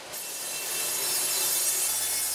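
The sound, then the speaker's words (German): A sawmill blade cuts steadily through wood in a new sawmill hall in the Bregenz Forest, a sustained bright, hissing whine that builds slightly in intensity and continues without a break, with no voices present. “Gearbeitet wird wenige Meter von hier entfernt, in Bartensteins neuer Sägehalle.”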